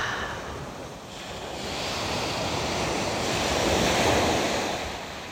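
Sea waves roll and wash continuously onto the shore, swelling to a louder crest near the end before easing off, with a faint windy hiss over the broad rush of breaking waves.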